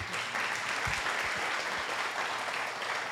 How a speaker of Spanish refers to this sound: Un aplauso al actor, por favor.